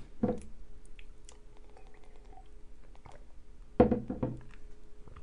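food or drink, sipping tea

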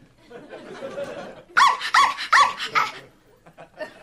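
animal, dogs barking

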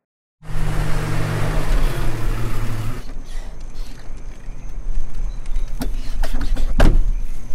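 household object, door closing

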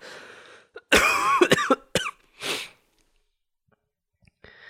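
human body sound, coughing

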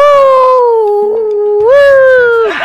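sound effect, coyote howl

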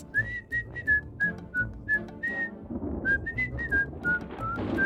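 human body sound, distant whistling

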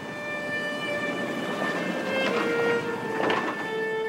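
vehicle, train running on rails

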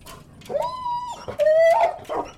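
animal, dog growling and whimpering

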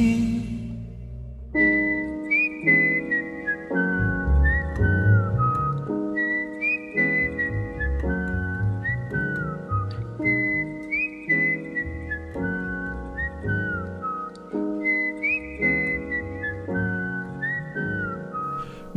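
whistled melody

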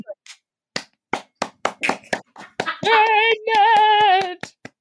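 human body sound, slow hand clapping

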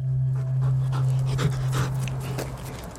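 animal, dog panting

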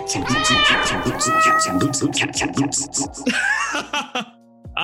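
animal, cat meowing

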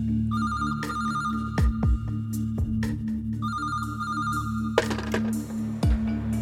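signal or alarm, telephone ringing

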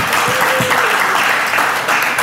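crowd, audience applause and cheering

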